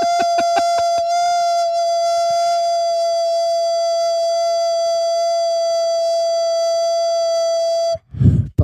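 A balloon lets out its air in a loud, shrill whine: a few stuttering squeaks, then a steady high-pitched tone for about seven seconds, ending in a brief sputtering rush.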